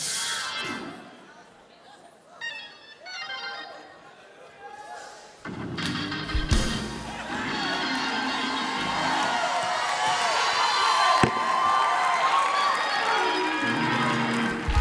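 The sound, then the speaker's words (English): A crowd erupts into loud shouting and cheering in praise to God after a quieter stretch of murmuring voices, sustained and energetic, with occasional thuds and claps mixed into the roar. “I just heard the Lord say, don't stop a praise.”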